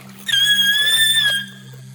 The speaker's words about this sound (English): The woman emitted a shrill screech.